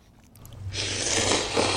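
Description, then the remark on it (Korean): Someone slurps noodles in one long, loud sucking pull that starts quietly and builds into a steady, hissy rush with slight wet crackles, and no one speaks. “네, 면, 면치기 하는 소리예요. 면 먹는 소리.”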